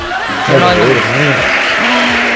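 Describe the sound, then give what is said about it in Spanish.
An applause sound effect played during a show: dense steady clapping that stays loud throughout, mixed with excited voices and whoops rising and falling over the noise. “¿Querés que ponga aplausos? Poneme aplausos, poneme aplausos.”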